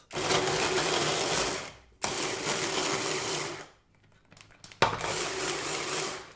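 A multi-chopper food processor whirs loudly in three bursts of pulsing, chopping coarse pieces of broccoli in a first mixing run, with short pauses between runs and a brief clatter before the last burst. No one speaks.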